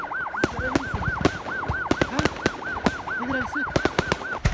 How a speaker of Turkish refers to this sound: havai fişekler ardarda patlamaya ve fabrikanın üzerinden siyah ve beyaz duman bulutları yükselmeye devam ediyor.